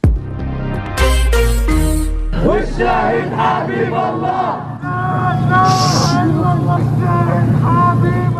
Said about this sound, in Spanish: Así se escuchaba el homenaje que rindieron los palestinos a la conocida periodista Shirin Abu Akleh, que murió de un disparo en la cabeza durante una operación militar israelí en la Cisjordania ocupada. Este homenaje se desarrolló en Ramallah